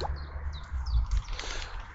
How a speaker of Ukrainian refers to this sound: Що там? Чуєш? Пташечок?